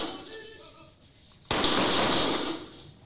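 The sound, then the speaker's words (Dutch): After a quiet stretch with a faint voice, pistol shots erupt abruptly and loudly in a rapid cluster that rings out with a harsh, echoing tail for over a second, fired by a shooter moving backward after dropping pepper spray in a dynamic self-defense firing demonstration. “Ja, en ik zal het dan nog even één keer laten zien en horen. Pepperspray, laten vallen, eerste schot.”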